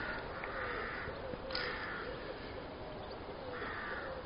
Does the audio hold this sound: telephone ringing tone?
no